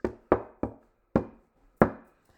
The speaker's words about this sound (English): Knocking on wood.